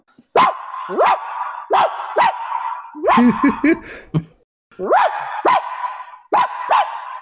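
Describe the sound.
A person imitates a dog, letting out a string of loud, rhythmic barks with a short laughing break in the middle, echoing slightly in a really big living room.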